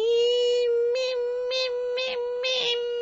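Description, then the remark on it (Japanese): A voice imitates the noisy midsummer cicada's song: one sustained, nasal, fairly high-pitched drone that swells in a steady rhythm of pulsing "mee" beats about twice a second, loud and alone. “えー、っと、で、あとなんだっけ真夏にやかましいセミの音。”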